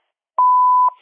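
A single steady electronic beep at one pitch, lasting about half a second with a clicky onset and offset, loud, followed by a faint trailing hiss; the answering machine beep of the Nationen phone line.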